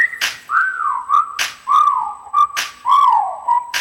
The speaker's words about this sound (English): There go, damn, shorty look good, and I'm thinking about getting at her. Okay, time to whistle at her. Hey, girl, you made my whistle blow.